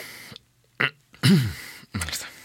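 A person makes a sharp, startled gasp of terror that comes out like a hiccup, with short breathy vocal bursts around it and brief silent gaps.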